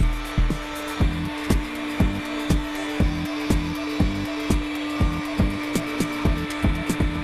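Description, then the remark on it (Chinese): A locksmith cuts a key on a duplicating machine, making a master key from an expired renovation key: a steady motor hum runs throughout while sharp, rasping cutting strokes repeat in a quick, even rhythm, about two per second, with no talking. “我们知道配锁师傅要配一把新钥匙，需要一个一模一样的钥匙当模板，但仔细对比装修钥匙和主人钥匙，这钥匙上的齿孔是有区别的。”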